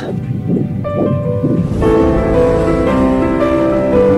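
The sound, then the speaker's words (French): A fetal heartbeat on an ultrasound monitor pulses in rapid, whooshing thumps, fast and steady, with a sustained tonal hum rising underneath after a couple of seconds. “Je veux juste savoir comment va le bébé je remplace mon fils, quoi. Il était moins relou que vous. Vous voulez écouter le cœur”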